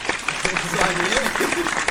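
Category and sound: sound effect, applause sound effect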